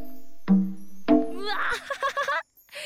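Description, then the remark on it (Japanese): Two hollow, resonant drum strikes about half a second apart ring out and decay as sticks strike the belly of a tanuki figurine that serves as an instrument, the Ponpoku Drum, in a music instrument shop, followed by a person speaking excitedly. “あここに立ってるたぬきさんの置物実はねこれも楽器なんだよびっくりじゃないポンプクドラムこのお腹をここにあるスティックを使って叩いてみるとあたぬきさん失礼しますちょっとお腹叩きますね”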